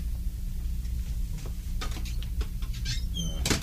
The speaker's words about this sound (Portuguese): Ah, pode sair e feche a porta, é.